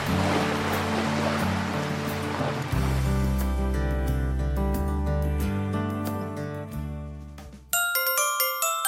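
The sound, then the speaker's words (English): A wash of surf rolls in during the opening seconds beneath sustained, gentle music, then the water fades as the tones continue and bright chiming notes ring out at the end. “He came to the sea.”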